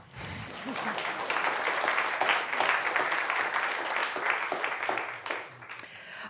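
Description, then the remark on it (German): An audience applauds steadily for several seconds, a dense wash of many hands clapping at once that swells quickly and then thins out toward the end. “Sie dürfen klatschen.”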